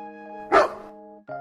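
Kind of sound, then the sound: animal, dog barking angrily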